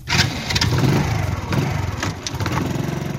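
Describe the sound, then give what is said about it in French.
A small motorcycle engine fires up and settles into a steady, rattling idle, with a couple of brief revs, as a courier sets off from his workplace near the city centre with an order in a metal box mounted behind the motorcycle. No one is talking. “Il quitte son lieu du travail à quelques pas du centre-ville avec la commande soigneusement mise dans une caisse métallique accrochée derrière sa moto.”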